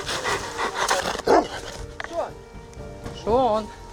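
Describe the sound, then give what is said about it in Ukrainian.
A large Rottweiler named Shon, kept by a military unit, barks and yelps in a few short, loud bursts, with a rougher background of movement and murmuring between them. “Під ногами в нас крутиться ротвейлер Шон.”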